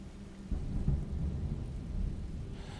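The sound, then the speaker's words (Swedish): Low thunder rumbles steadily for a few seconds overhead, under a dark sky full of rain clouds above a pine forest. It is a deep continuous roll with a soft hiss of rain in the background and no voices. “Du kan se genom trädkronorna en mörk himmel fylld med regnmoln kan höra lite åskmuller där uppe.”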